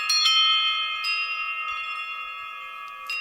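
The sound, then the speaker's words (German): Struck glass rods of an instrument called the Saturn ring out in bright, bell-like tones, with a few soft strikes at the start and one near the end. The layered pitches sustain and slowly fade, with no voices. “Man sollte es nicht glauben, das sind auch Glasstäbe.”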